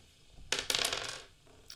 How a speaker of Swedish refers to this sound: Och jag tänker att vi slår tärningen och ser vem som börjar prata.